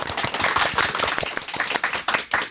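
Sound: audience applause welcoming guests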